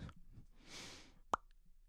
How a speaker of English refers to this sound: I don't know why I just like popped my my lips. We'll probably have to edit that out, but who knows?